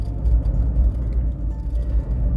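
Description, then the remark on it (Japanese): Steady low engine rumble and road noise from inside a moving car being driven on a sunny, warm day, a continuous droning hum with slight fluctuations and no voices. “ちょっと忙しいんでで車運転しながらの収録となっておりますが”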